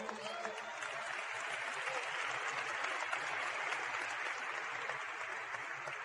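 A steady burst of audience applause, dense clapping from many hands that stays loud and even for several seconds without letting up.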